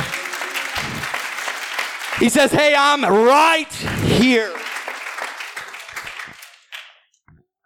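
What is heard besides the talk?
audience clapping hands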